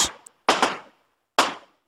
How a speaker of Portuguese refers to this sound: Ele quer explodir tudo, por isso aquela profusão de explosões